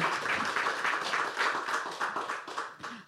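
An audience at a talk held as part of the Festival of Freedom in Bardejov gives a final round of applause for a guest, dense overlapping claps forming a bright, continuous patter that holds fairly loud for about three seconds before easing slightly at the end.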